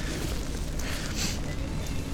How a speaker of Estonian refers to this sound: Te kuulete, kuidas vihm krabiseb äh, vihmavarju vastu.